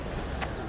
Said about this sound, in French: C'est calme et, en même temps c'est vivant. C'est vraiment genre une ambiance, tu vois. Il y a une cathédrale, il y a des terrasses, des baratapas. C'est trop paisible en fait, il y a des petits oiseaux.